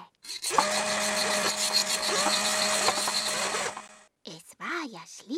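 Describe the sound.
A loud, busy burst of hammering, drilling and sawing in a laboratory as something large is being built: a steady whining tool motor with scraping and knocking mixed in for about three seconds, then it cuts off and someone starts talking.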